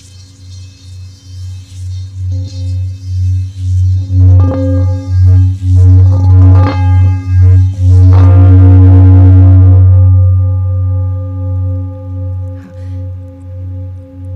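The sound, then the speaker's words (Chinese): A singing bowl rubbed, not struck, around its outer rim with a mallet, producing a vibrating, steady, humming drone that pulses in slow waves, swells louder midway with some rough scraping, then gently fades. “这是一个用磨波棒去磨波的外层，然后产生的一个震动的一个声音，它不是用敲的。”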